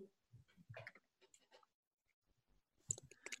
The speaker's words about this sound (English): This is me typing. Can you hear it? I I'm going to say him hanging but man, I've got a MacBook.